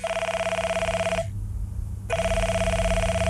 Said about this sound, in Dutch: Oh, telefoon. Even kijken.